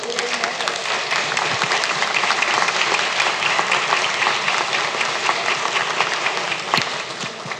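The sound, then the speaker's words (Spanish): Sustained audience applause for Paralympic champion Angélica Espinosa, gold medallist at the Tokyo 2020 Paralympic Games: a dense wash of many hands clapping steadily and loudly for several seconds without a break, with no speech over it. “Por su intermedio, antes de empezar, quiero pedir un fuerte aplauso a nuestra campeona paraolímpica Angélica Espinosa, quien obtuvo una medalla de oro en los Juegos Paralímpicos de Tokio 2020.”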